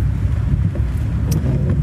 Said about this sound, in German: Jetzt möchte der große LKW von der Schlossquelle gerne vor mir einscheren. Das ist überhaupt gar kein Problem. Nichts tue ich lieber, als hinter LKW-Wagen herzufahren.